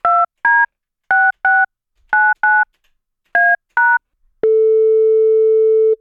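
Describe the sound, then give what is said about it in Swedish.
Ten quick telephone keypad tones beep in uneven pairs as someone phones a colleague, loud, then give way to a steady, unbroken line tone that holds to the end. No voices are heard. “Så vi ringer väl upp Snutteponken även den här veckan.”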